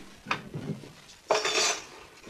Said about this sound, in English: now, let's put all the silverware away.